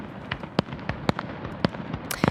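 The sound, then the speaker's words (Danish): A rapid string of fireworks bursting against a constant crackling din, with several sharp, loud bangs standing out irregularly over a dense, rumbling background of explosions, at a royal celebration in Tivoli marking the change of throne, the largest display in the garden's history, with more than 5,000 rockets. “Og til sidst ved den kongelige fest i går, der markerede Tivoli tronskiftet med det største fyrværkeri i havens historie. I alt røg mere end 5.000 raketter til værs.”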